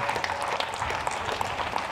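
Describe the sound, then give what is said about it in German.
Dense, continuous clapping from many people on balconies in Europe during the coronavirus pandemic, in solidarity with essential care workers, a steady patter of overlapping claps at even loudness, with no voices standing out. “Sie haben es vielleicht erkannt, äh, es wurde geklatscht.”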